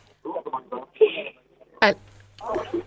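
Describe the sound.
A person nearby talks on the phone in short, broken bursts of speech with brief pauses between phrases, moderately loud and slightly muffled, as if one side of a call.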